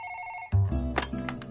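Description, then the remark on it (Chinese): A telephone rings with a steady electronic tone, then cuts off abruptly at a loud clunk, followed by muffled handling noise and brief clicks. “初中的女同学们纷纷借故给莫小鱼电话”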